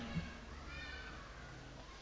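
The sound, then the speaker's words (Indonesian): A person's voice imitates a cat meowing, a drawn-out, nasal mewing that runs continuously for about two seconds at a fairly soft, steady level with no other sounds alongside it. “Tahu-tahu datang kucing ngeong ngeong ngeong.”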